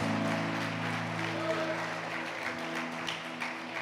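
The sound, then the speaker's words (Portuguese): A church audience applauds the Lord steadily for several seconds, a dense wash of clapping from many hands, with sustained keyboard-like tones humming underneath. “Pode aplaudir o Senhor.”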